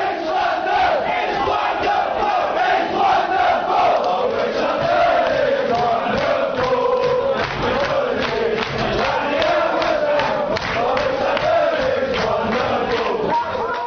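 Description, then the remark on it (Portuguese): A large crowd of West Ham football fans chants a song in unison taunting Manchester United, the loud massed voices rising and falling in a steady melodic rhythm, echoing as if across a stadium. “eles xingam o Manchester United. Então é uma provocação lá para os torcedores do, do norte.”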